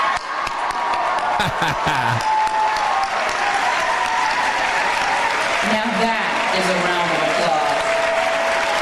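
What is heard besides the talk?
audience applause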